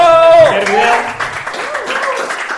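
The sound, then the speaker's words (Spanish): Audience applause during a live comedy recording at Terminal Comedia, a dense steady patter of many hands clapping, with a voice shouting over it at the start and cheering voices mixed through. “Y quiero que primero que nada le un aplauso porque este es el primer contenido que se graba oficialmente en Terminal Comedia.”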